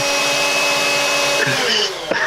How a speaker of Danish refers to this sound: Det, jeg, jeg ved ikke, om det er første gang i verdenshistorien, hvor vi har generet folk i, i 30 sekunder med blenderstøj.